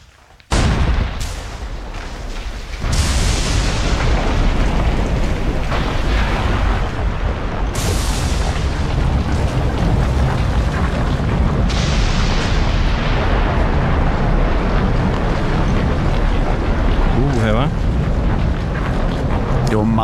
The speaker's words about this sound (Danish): Jamen, altså det er højt, når man står ved en vulkan.